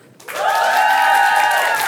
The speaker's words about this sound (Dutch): Je mag heel veel applaus eh, verwachten van zijn team.